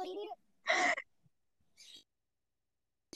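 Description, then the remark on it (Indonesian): A bird calls with a loud, harsh, raspy note lasting under a second, followed by a fainter, breathier call after a short pause, with quiet gaps in between. “Kedengeran, Dan yang keempat suara burung burungnya kedengeran, bener.”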